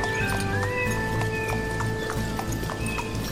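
Hooves pound in a quick, steady galloping rhythm, loud throughout, while a horse lets out a high, wavering whinny partway through.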